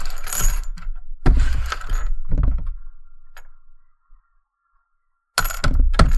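household object, coins clinking

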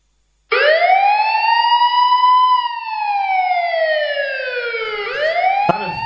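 signal or alarm, alarm siren going off

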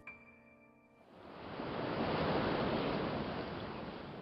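nature, running water

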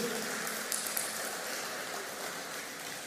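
crowd, audience applauding

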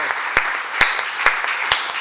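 crowd, audience applause

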